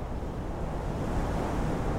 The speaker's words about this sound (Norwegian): Vinden blåser kaldt opp fra havet.